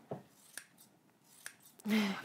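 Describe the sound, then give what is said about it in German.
Scissors snipping through stiff faux leather: a few sharp crisp cuts spaced irregularly, then a longer, louder rasping slice at the end. No one talks. “Da kann man hier so äh, reinschneiden.”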